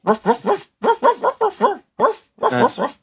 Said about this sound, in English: And then when the credits ran, you'd have the dog singing the theme song.